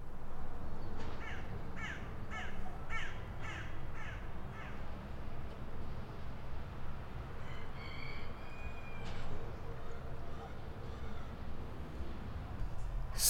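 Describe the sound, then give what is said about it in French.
Early-morning outdoor countryside ambience at the Verpillères mill in Choulex, in the Geneva countryside, with a steady low rumble, a run of repeated crow caws early on, and scattered birdsong calls above the continuous background hum. “le petit matin. Je suis à Choulet dans la campagne genevoise, au moulin des Verpillères”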